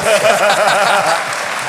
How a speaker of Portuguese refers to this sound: Podia ter aplausos no nosso podcast. Agora. Olha aí. Aplausos reais num podcast.